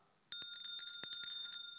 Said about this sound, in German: eine Glocke.